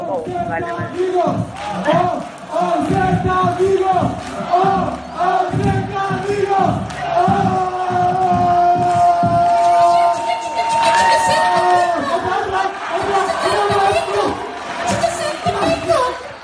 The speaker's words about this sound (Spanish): mezclaron con la afición. Para mí es lo que tenéis una celebración improvisada